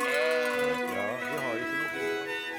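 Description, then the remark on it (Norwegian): A large flock of sheep bleat in overlapping, wavering calls that blend into a steady chorus across the whole short stretch, fairly loud and without pause. “Han eh, har altså en svær gjeng med sauer rundt her.”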